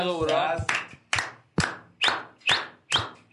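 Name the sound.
hand clapping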